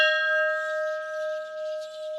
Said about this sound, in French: on arpente euh, la zone historique du musée Albert euh, Schweitzer et on tombe sur la cloche. Est-ce qu'elle fonctionne encore, cette cloche Alors, elle fonctionne encore. Eh ben, elle servait, je pense, aux offices religieux.